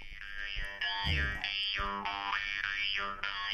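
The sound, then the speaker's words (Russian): A khomus, a Yakut jaw harp, twangs steadily with a buzzing drone, its overtones sliding up and down in wah-like sweeps, played fairly loud with no voices. “Дайте нам, пожалуйста, хомус. Послушаем, как звучит.”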